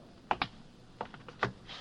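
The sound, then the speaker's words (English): Footsteps of a prison warden walking on a hard floor toward a cell, a handful of crisp taps at an uneven pace, fairly quiet and unaccompanied by any voices. “The warden is walking straight toward my cell.”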